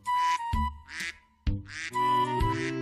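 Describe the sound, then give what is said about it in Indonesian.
Ducks on a farm quack loudly in a rapid series of nasal, overlapping calls, several birds chattering at once with only brief gaps between bursts. “Ada seribu ekor ayam dan ada seribu ekor bebek.”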